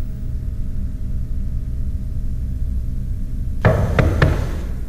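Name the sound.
knocking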